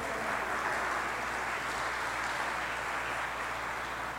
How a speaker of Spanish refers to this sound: Gloria a Dios por mi esposita preciosa. Un aplauso para ella porque si no me va a ir mal al rato.